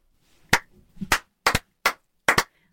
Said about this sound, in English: So I'm giving that a slow clap a slow clap. into a big clap.